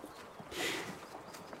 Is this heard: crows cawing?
no